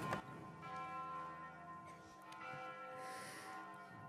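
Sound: church bell ringing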